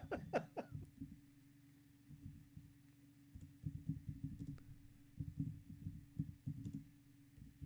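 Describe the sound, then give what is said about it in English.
Soft, irregular tapping and dull thumps of keys pressed on a computer keyboard as someone types text in, muffled and bassy with a few sharper clicks at the start, and no voices. “Are you just typing that in?”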